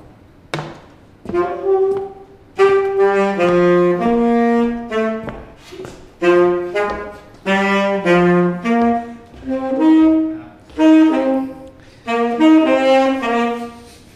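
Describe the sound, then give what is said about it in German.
A saxophone plays a short, loud melodic interlude of sustained and quick notes in several phrases, with brief pauses between them and no voices, as a transition while the group walks from exhibit to exhibit. “Ich nehme mein Saxophon wieder mit.”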